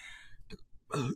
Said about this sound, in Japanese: あ、で、ゲップした。ああ。このセブンラッキーを言うところでね、あの、ゲップするあたりが私、私ですよね。